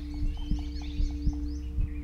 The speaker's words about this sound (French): Mon cœur bat fort.